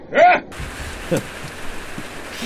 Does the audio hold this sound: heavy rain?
yes